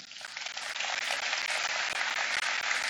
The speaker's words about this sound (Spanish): ¿Lo crees? Dale un aplauso.